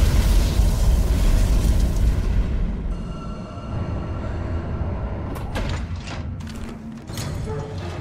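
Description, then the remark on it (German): Mechanical doors grind and slide shut, then a steady low rumble of a lift riding upward with faint clanks and metallic clicks near the end, fairly loud, no voices. “Sie schaffte es zu einem Fahrstuhl und fuhr nach oben.”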